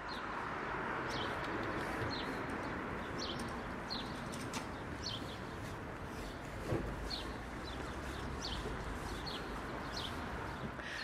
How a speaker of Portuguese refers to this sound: Acho que esses são os mais clássicos, né? Os, os pardais. São os que eu sempre ouço quando eu ou abro a minha janela de manhã.